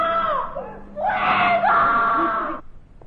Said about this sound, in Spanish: Estamos en la calle Fuencarral, número 109, dos y media de la madrugada, lunes 18 de julio de 1888. De aquí a un momento escucharemos a una mujer pedir socorro desde una de las cinco ventanas del piso segundo primera.